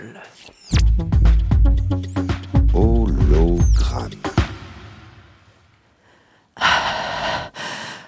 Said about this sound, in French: Alors, je suis un peu essoufflée parce que je suis en train de, de marcher dans les, dans les plaines de la Vienne.